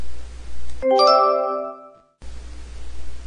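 A doorbell rings once with a bright, layered ding-dong chime whose tones ring out and fade over about a second. A steady background hiss drops out while it sounds.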